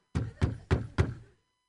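Four solid knocks on a door, evenly spaced in a quick, steady rhythm, each a heavy, resonant thud with a short ring-off, fairly loud, with no voices.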